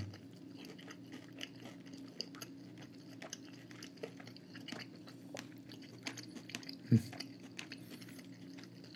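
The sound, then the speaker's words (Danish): Someone chewing food with soft, irregular wet crunches and mouth sounds over a steady low hum, with one sharper click or bite partway through; no one speaks. “Undskyld, jeg tager med i munden.”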